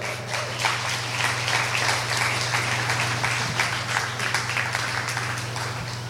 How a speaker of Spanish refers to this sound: Le puedo dar un aplauso al rey.